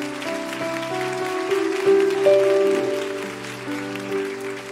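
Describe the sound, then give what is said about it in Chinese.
An audience claps together to give glory to God, a dense, steady wash of applause lasting the whole stretch while sustained keyboard chords ring underneath; no one speaks. “顺服的器皿，愿意顺服神的，拍手把荣耀归给主吧。”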